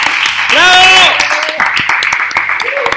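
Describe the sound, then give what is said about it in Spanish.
Sustained crowd applause, a dense wash of many hands clapping at steady loudness, with a rising-falling shout or whoop over it early on and a few brief vocal cries later. “¡Un aplauso, por favor!”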